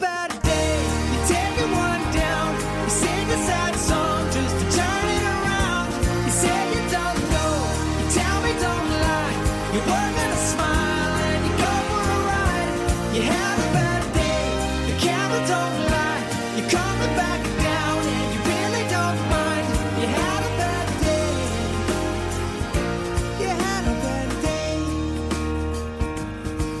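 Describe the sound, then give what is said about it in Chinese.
A pop song by a Canadian male singer-songwriter plays throughout, a male voice singing a melodic line over a full band with steady drums and bass, staying loud and even from start to finish. “大家现在听到的是加拿大的创作男歌手”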